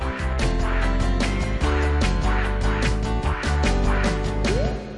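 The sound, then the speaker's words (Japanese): A loud, bouncy jingle for the noble's free-talk corner of Hige Danshaku Yamada Luizi 53rd's Renaissance Radio plays on its own, full-band music with steady punchy beats and bright, reedy tones running continuously for several seconds before ending. “さあ貴族のフリートークのコーナーでございますけどもねこのジングルはもうやっぱちょっと変え、変えてほしいな。”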